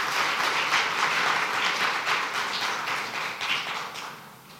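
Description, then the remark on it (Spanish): An audience at a morning service applauds the King of Kings steadily for several seconds, a dense wash of many hands clapping at once, strong throughout and tapering slightly toward the end, with no voices over it. “Si tú lo crees, dele fuerte el aplauso al Rey de Reyes en esta mañana.”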